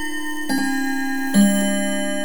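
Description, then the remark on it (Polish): An alarm clock sound: a steady, bright ringing tone with a couple of soft tick-like knocks about a second apart, no voices. “Misyjny budzik.”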